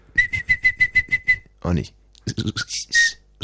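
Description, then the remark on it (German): Someone whistles an imitation of nightingale song: a quick run of about eight repeated chirping notes, a brief spoken remark, then a few more warbling whistled phrases, fairly loud. “Ey, das ist eine Nachtigall, glaube ich, oder?”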